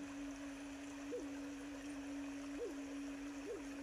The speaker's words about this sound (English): Do you hear that water running?